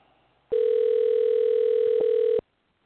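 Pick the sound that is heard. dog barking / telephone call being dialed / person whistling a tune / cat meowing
telephone call being dialed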